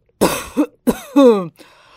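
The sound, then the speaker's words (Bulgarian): Two harsh coughs burst out in quick succession, followed by a hoarse, strained vocal hack that trails off, with no talking around them. “Имал си кашлица.”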